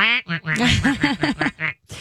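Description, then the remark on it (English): A person imitates a duck with a rapid run of nasal, rasping quacks, about seven or eight in quick succession, loud with no other talking. “Even though I've had a couple pet ducks that were imprinted on me. Yeah. You know, and I they we'd hold regular conversations.”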